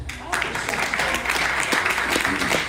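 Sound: audience clapping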